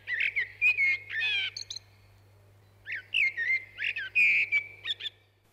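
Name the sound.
eurasian blackbird singing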